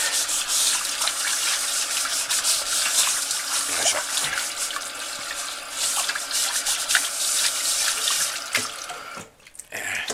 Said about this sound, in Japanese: 中華鍋はね亀の子たわしで洗います亀の子たわしはちゃんと亀の子たわしの本家のやつを買ってます